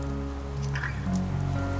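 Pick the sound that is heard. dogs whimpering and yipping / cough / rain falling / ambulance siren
rain falling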